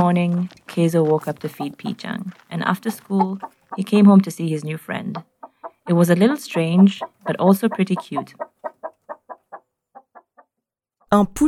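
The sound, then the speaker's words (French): A chicken clucks, with longer bursts of vocalizing and voices early on, then a quick series of short, evenly spaced clucks that gradually trail off before one last sound. “He immediately fell in love with the chicken and named him Pichang.”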